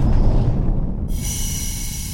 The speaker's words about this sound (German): ein lauter Knall schallt durch das Raumschiff, gefolgt von dem Geräusch zischender Luft.